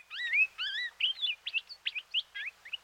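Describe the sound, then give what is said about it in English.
Palila honeycreeper calls in their habitat: a continuous run of bright, sweeping whistles and quick chirps, clear, with no talking. “When you spend a lot of time in their habitat, you hear them almost like talking to each other.”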